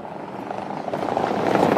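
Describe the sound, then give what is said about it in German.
A vehicle rumbles over rough cobblestone pavement in the city centre of Eisenach, Germany, a steady rough rattling that grows gradually louder, with no talking over it. “Man, man hört auch an den, an den Fahrzeuggeräuschen, dass man in der Eisenacher Innenstadt vielleicht tatsächlich ein SUV gut brauchen könnte.”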